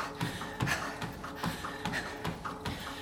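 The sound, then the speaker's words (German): Quick, steady footsteps of people running crunch over a gravel path, each step a short gritty scrape in an even rhythm, with no voices. “Vier Schritte ein, vier Schritte aus.”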